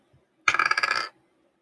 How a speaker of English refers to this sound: Um, oh, oh, yeah, that's dice.